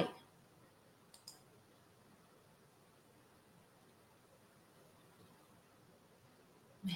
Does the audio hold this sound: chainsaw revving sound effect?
no